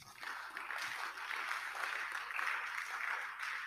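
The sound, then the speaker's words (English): An audience claps for Jesus together in a dense, continuous burst of applause that holds at a steady, moderate level for several seconds, with no voices standing out. “Clap for Jesus first.”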